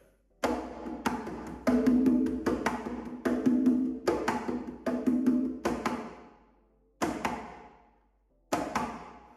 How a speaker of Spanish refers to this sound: ese baqueteo, ¿verdad? Tan, tan, tan métrico, tan, ¿verdad? Eso es como un tren, lo que le llaman el tren. Este, lo voy a tocar para que lo puedan escuchar.